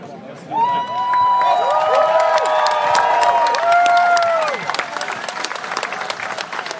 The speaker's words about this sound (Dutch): Nou, wat Amerikaans applaus net, hè, wat eh, de medewerkers kregen.